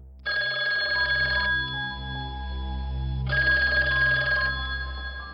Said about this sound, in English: The phone rings.